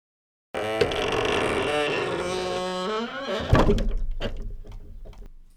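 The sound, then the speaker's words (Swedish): A long, loud, wavering creak from an unoiled door swinging open as someone leaves, its pitch sliding for a few seconds, then a solid thud as the door shuts, with rattling fading after. “Eh, hon var klar där och jag noterar att du inte har smörjt dörren ännu fast det var din uppgift.”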